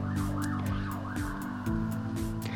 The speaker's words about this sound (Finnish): Puupaa auto menee taustalla, en tiedä kuuletko.